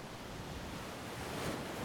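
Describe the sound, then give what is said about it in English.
Ocean waves roar in a steady, continuous wash of surf that swells slightly toward the end, heard alone without voices and at a fairly low, even level. “Flames hissed, waves roared, angry.”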